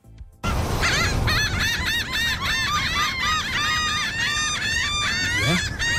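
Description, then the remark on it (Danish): A noisy flock of seagulls cries nonstop, their harsh, overlapping squawks repeating loud after a brief quiet start, with a low rumble of surroundings underneath. “Min mor, hun siger det, er, fordi de flyver rundt over øh, fiskene, og så siger de, min, min, min, min, min.”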